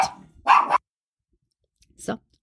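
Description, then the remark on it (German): A dog barks twice in quick succession, fairly loud, then after a brief silence gives one shorter, softer bark. “Hund wurde wieder beruhigt.”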